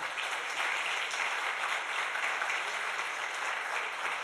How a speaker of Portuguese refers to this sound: No nome de Jesus. Amém? Aplauda o Senhor, por favor.